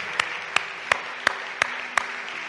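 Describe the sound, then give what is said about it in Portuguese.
A standing audience at a church service applauds Jesus Christ in a dense, steady wash of clapping, with six sharp, evenly spaced louder claps punching through in a regular rhythm. No one speaks. “E uma vez que estén de pé, dê um aplauso a Jesus Cristo uma vez mais, tá Porque Ele é digno, porque Ele merece.”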